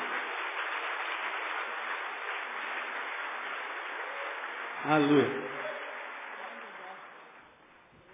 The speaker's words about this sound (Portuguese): Um aplauso a ele bem forte, porque ele é digno.